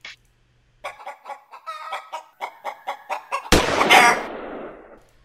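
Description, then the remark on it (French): A short jingle: a hen clucks about a dozen times in a quick, steady series, then a sudden loud, harsh gunshot, as the hen is shot, cuts the clucking off and fades over a second. “J'adore cette petite poule qui se fait fusiller.”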